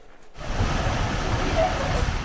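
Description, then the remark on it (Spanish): Rushing floodwater from torrential rain roars in after a brief moment of quiet, a loud, steady churning wash over flooded roads with stalled cars, continuous to the end. “La lluvia torrencial inundó carreteras que se tragaron a los autos estancados en el agua”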